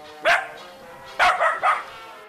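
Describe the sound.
A dog barks: one sharp bark, a short pause, then a quick run of three barks in succession, with no voices present.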